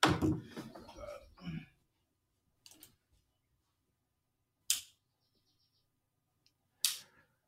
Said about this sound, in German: und meine Kamera gerade ausgegangen ist. Ich muss mal gucken, äh, warum. Akku wechseln.